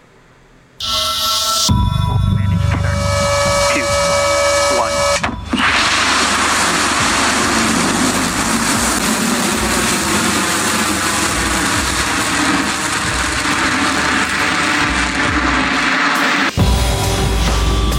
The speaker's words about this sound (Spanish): Así se escuchó el despegue de la misión NS-21 en el New Shepard de la compañía Blue Origin